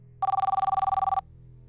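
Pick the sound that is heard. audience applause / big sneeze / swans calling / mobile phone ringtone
mobile phone ringtone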